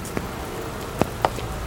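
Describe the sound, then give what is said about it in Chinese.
Heavy, steady rain hisses without a break, with a few sharper drop-like taps standing out, three of them clearly, over the even wash of sound. No one speaks. “奶奶，下雨了，我的衬衫都湿了，鼻子也滴水了。”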